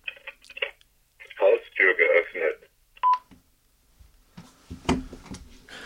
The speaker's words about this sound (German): So, Sie haben es gehört, Haustür geöffnet, das äh, sagt die Alarmanlage, das war meine Sprache, das habe ich selbst aufgesprochen. Und das hören Sie dann auch am Telefon.